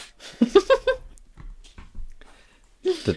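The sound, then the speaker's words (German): A dog makes a few short, whiny vocal noises in quick succession, followed by a quiet pause with faint shuffling, then another brief grumbling whine. “Warum sind Hunde so lustig?”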